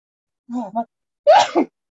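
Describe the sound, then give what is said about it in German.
A single sneeze: a short voiced intake followed by a loud, breathy burst, then quiet. No talking. “Gesundheit.”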